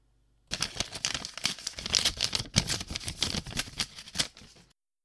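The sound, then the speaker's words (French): Paper crinkles and rustles as a letter from the morning's mail, addressed to the President, is unfolded and handled, a busy stream of crisp crackles and soft flaps lasting about four seconds, with no voices. “Voici le courrier de ce matin. Je pense que ce premier courrier pourrait vous intéresser.”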